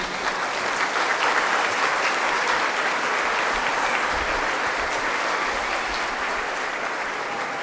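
Sustained applause from an audience for schoolchildren at the end of the school year, a dense steady clatter of many hands clapping at once, loud, continuing without pause for several seconds.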